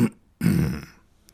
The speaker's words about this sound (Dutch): Ik hoorde Jeeves kuchen.